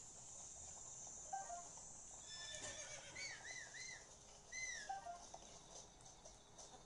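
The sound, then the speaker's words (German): A horse whinnies twice in quavering, rising-and-falling bursts, set against a steady background of chirping crickets and insects in an otherwise quiet outdoor scene. “Komm her, Pferd.”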